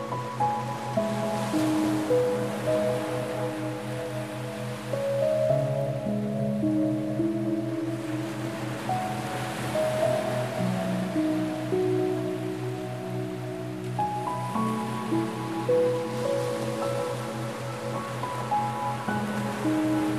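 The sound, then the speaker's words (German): Ocean waves wash steadily in the background beneath soft, sustained ambient music tones that shift slowly from note to note, with no talking. “Schließlich verlasst ihr zusammen das Meer.”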